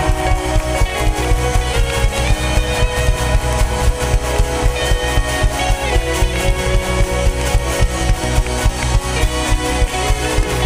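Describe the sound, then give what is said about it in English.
An audience claps for the Lord Jesus in a steady, driving rhythm over loud, full music, the sharp claps landing evenly throughout with no voices standing out. “Come on, clap.”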